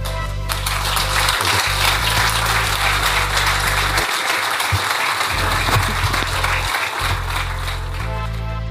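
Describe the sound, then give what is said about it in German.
Steady applause from an audience at the end of a live talk, dense overlapping clapping that stays at an even loudness throughout, with no voices standing out. “Ja, so ein Applaus tut immer gut.”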